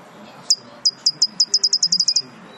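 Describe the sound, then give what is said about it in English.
A recorded bird call played back from a bird app: about a dozen sharp, high-pitched chirps that start spaced apart and speed up into a quick trill, clear over a low background hum. “So you can play back the sounds of the bird calling.”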